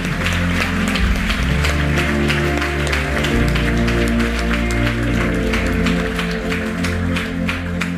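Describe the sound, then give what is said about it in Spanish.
An audience applauds with dense, steady clapping that continues the whole time, layered over loud sustained low musical tones, with no clear speech. “Den un aplauso al Señor por esa palabra.”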